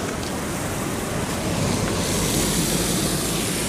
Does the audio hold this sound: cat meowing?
no